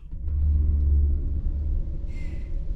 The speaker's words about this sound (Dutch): De maan heeft geen kans om door de wolken te schijnen, omdat er een zware storm over de heuvels raast. De wind giert en de regen klettert op het dak.